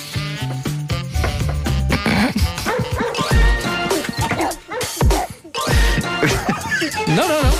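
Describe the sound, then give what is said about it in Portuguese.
A person imitates a dog, letting out a rapid string of loud, harsh barks and yips, with a few higher whimpering notes mixed in, continuing for several seconds without pause. “Mordeu o cão. Fez o som.”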